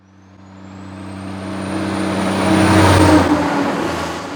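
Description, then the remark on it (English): A heavy truck rumbles along a town truck route in Haines with a deep, steady engine drone, growing louder as it approaches and passes by, with no voices. “Residents along the truck route in Haines have noticed an increase in traffic in recent weeks.”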